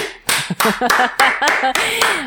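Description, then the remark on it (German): Hands clap in a quick, steady rhythm, about seven sharp claps, while voices call out and exclaim over them. “ich möchte einfach nur klatschen.”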